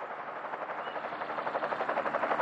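A low-flying aircraft passes overhead, a broad, steady roar with a fast rhythmic thudding pulse that swells louder over the couple of seconds, with no voices.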